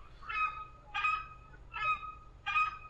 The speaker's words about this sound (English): The crested screamer, as you can hear in the background, possibly, likes to make a loud noise. His scientific name, Chauna torquata, means spongy bearer of collar.